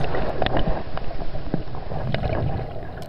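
Muffled underwater ambience with a constant low rumble, sloshing water movement and scattered bubbly clicks and knocks, recorded close by a small submerged camera, with no voices.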